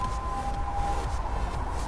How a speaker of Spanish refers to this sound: Escuchan que una sirena se aproxima.